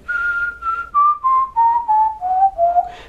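A person whistles a descending scale, eight clear notes stepping steadily downward in pitch, each held briefly with a slight break between them, fairly loud.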